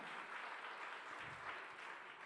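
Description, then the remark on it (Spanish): An audience applauds God, a steady, dense wash of clapping from many hands that holds at an even, fairly loud level throughout, with no one talking over it. “Dale otro aplauso fuerte a Dios.”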